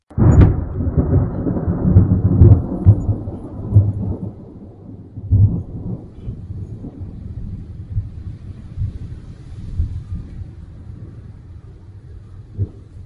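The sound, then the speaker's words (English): Deep rolling thunder rumbles on and off for several seconds, with heavy crashes near the start and fading low growls afterward, all under a steady wash of storm noise with no voices. “But who could brave the storm to look into Sparkwing's eyes?”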